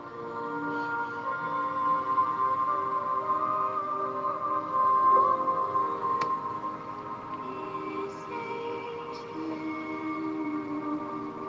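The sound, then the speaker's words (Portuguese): Soft, sustained ambient meditation music with long held tones layered into a steady, calm drone, playing alone at an even, moderate level without any voices. “Permita-se envolver pelo som da música.”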